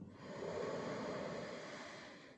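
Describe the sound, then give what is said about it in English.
A single long, deep inhale drawn through the nose during a yoga breathing practice, a steady airy rush lasting a couple of seconds, alone with no talking. “You breathe in,”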